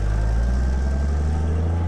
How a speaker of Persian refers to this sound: حتی نذاشتن من یه جمله بگم در ماشین رو بستن و ماشین با سرعت دور شد